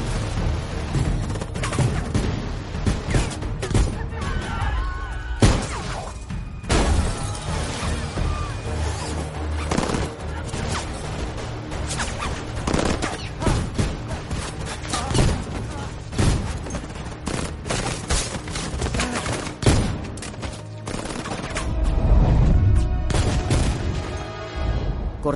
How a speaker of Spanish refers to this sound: Agentes vestidos de negro bajan hacia el coche por las cuerdas agarrados a tirolinas. 47 sale del coche y dispara contra ellos, matando a todos.